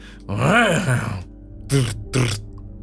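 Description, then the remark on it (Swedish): A person imitates a horse with a fairly loud drawn-out whinnying groan that rises and falls in pitch, followed by two short, breathy snort-like bursts. “Som att en häst...”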